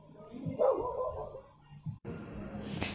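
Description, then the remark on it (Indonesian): A dog that has gone outside barks a few times in short, moderately loud bursts over muffled background noise that abruptly shifts to a brighter hiss near the end. “so sorry for my tangga gue ya anjing gue itu keluar gonggong”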